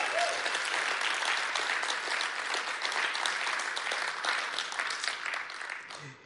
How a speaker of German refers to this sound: Gebt ihr mal einen riesen Applaus.